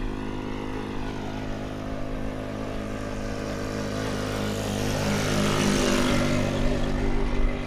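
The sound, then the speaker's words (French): A small engine drones steadily with a buzzing, harmonic hum, growing louder and brighter toward the end as a lone tuk-tuk comes up along the wide road leading to the Parliament in India. No one speaks. “Ah, et là, il y a un tuk-tuk qui arrive, comme on dit en Inde, qui est tout seul sur cette grande voie.”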